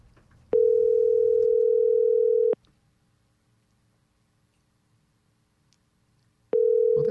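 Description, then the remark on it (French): A phone call to a stranger at 9 p.m. rings out with a steady two-second ringback tone, a long silent gap, then the next ring begins; no one picks up. Clear and fairly loud, with no voices. “Pourquoi le monde répond pas au téléphone à des inconnus à 9h du soir?”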